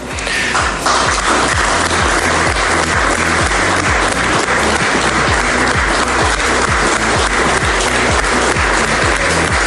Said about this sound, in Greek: Αυτό είναι το χειροκρότημα, ε! Αλλή μόνο, ε! Και ακούς και κάποια χεράκια τα οποία κάνουν αυτό το επιτούτου, ρε παιδί